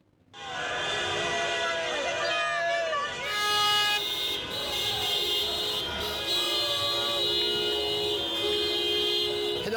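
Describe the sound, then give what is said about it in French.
A busy street in Algiers on a Monday evening, filled with loud, overlapping car horns honking continuously in celebration after President Bouteflika renounced a fifth term, with a murmur of crowd voices underneath throughout. “On va se replonger pour commencer dans l'ambiance de ce lundi soir avec les premières réactions entre joie et scepticisme dans les rues d'Alger.”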